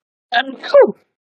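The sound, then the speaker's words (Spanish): One short, voiced sneeze: a brief breathy build-up and then a sharp, loud burst that trails off quickly, with nothing else audible around it. “Salud.”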